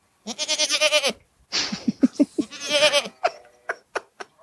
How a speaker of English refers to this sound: what's that? Is that just a goat?